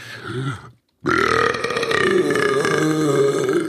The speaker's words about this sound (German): ausgeprägte Atembeschwerden hat mich gerade dazu veranlasst, diesen Rülps loszulassen.